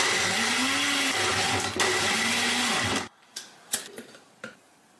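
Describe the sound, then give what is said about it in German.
A blender whirs loudly for about three seconds, its motor pitch wavering as it churns a smoothie with ice, then cuts off abruptly, followed by a few sharp clicks and knocks. “Und ich mache da noch ein paar Eiswürfel rein. So, jetzt mixe ich alles zusammen.”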